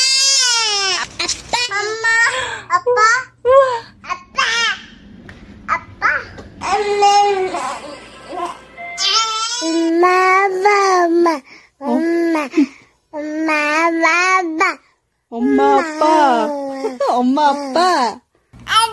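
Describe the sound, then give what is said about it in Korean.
Babies babble and coo in short, bright bursts as they say their first words, 'eomma' (mom) and 'appa' (dad), one voice prominent, with an adult voice briefly prompting between the baby sounds. “아기들이 처음으로 엄마 아빠를 바라하는 순간들 들려드렸습니다.”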